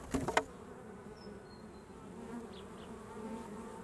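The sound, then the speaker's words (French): A steady, low hum of many honeybees buzzing together at an opened hive during a visit, with a few clicks and knocks at the start, no voices. “Une petite visite, une petite intrusion. Voilà. C'est vrai que la, première chose, c'est on regarde par terre euh, comment ça se passe, s'il n'y a pas d'abeilles traînantes, euh, des, abeilles mortes euh, et autres.”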